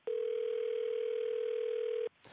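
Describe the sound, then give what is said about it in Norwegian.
A telephone ringing tone from an outgoing call to the US Department of Defense, the Pentagon: one loud, steady electronic beep lasting about two seconds, then cutting off abruptly into a brief rustle. No one speaks. “Vi ringer upp USAs försvarsdepartement, Pentagon, för att få veta hur president Obama resonerade”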